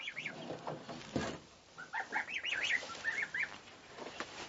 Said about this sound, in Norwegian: Og eh, kalkunkyllinger og de første eggleggerkyllingene har kommet her.